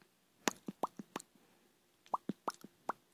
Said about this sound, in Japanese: 大丈夫かなこれ、リップ音とか、ちょっとぺちゃくちゃ言ってるかもしれません。ごめんね、嫌いな人いたら、ちょっとテストさせてください。